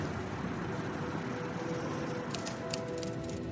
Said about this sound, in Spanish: Stephen sube al auto y vuelve a la casa rodante. Maneja sin prisa